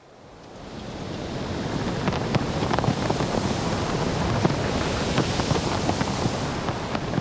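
Steady coastal wind blusters across the microphone while waves wash and hiss, fading in quickly and holding a full, rough roar with small crackling bursts throughout.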